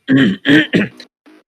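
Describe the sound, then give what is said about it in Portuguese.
A person clears their throat in three quick, rough bursts, followed by a faint, short rasp after a brief pause. “estou com pigarro.”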